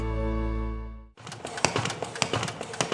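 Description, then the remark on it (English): Hope for the Heart's paper folding machine, preparing hundreds of short biblical resources to send to prisoners around the country, runs with a busy mechanical clatter of rapid, irregular clicks and taps over a steady whir, following a sustained tonal hum that cuts off abruptly. “That's our folding machine preparing hundreds of our short biblical resources to send to prisoners around the country.”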